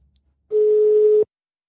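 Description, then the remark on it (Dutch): A single steady telephone tone, like a ringback beep, sounds at a mid pitch for under a second as a phone call is placed, clear and fairly loud, with silence before and after and no talking. “Dus we gaan we, gaan we gewoon even bellen.”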